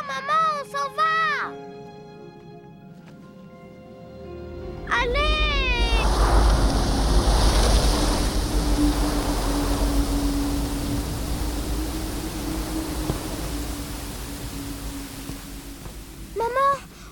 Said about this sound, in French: dirait que cette vieille maison gémit. Allons, ce n'est que le vent.